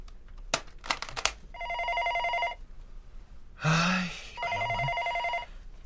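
A school telephone rings with parents' complaint calls, in two steady bursts of evenly spaced harmonic tones, broken by a few sharp clicks at the start and a brief vocal outburst between the rings.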